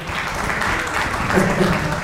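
An audience claps steadily for a couple of seconds, a dense, even patter of many hands with a few scattered cheers or voices mixed in near the end.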